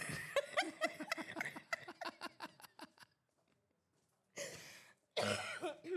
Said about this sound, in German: genau, hust sie mal aus, meine ja, Liebe. Na, Entschuldigung, das hat halt so einen Husten an sich, der ja, geht einfach genau. nicht weg.